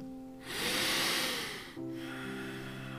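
A deep breath during a yoga session rushes in with a loud airy whoosh for about a second, then eases off as soft sustained tones hum steadily underneath. No one speaks.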